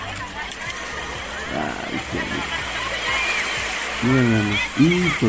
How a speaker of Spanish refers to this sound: y ese sonido del mar es espectacular. Sí, y más en Huatulco. Playa Rosito, no, pues la están disfrutando y pasándola bien.